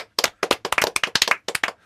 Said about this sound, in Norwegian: Kort applaus.